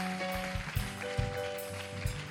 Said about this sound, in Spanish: Dale un aplauso fuerte. Um aplauso fuerte.